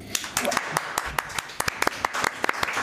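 A short round of applause from a small group: many sharp, irregular hand claps overlapping into a steady, moderately loud patter for about three seconds.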